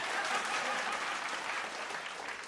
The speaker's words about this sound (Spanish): Grande Asa. Aplausos a Asa. Gran reflexión.